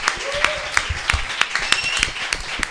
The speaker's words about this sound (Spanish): te llevas este fuerte aplauso además de los tres euros